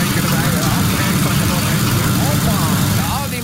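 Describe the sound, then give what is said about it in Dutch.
A voice imitates sputtering motor engines being started, a continuous, loud, rumbling burble of rapid lip and throat vibrations, held steadily for a few seconds before easing off slightly at the end. “motoren die lopen de prutterie, hè?”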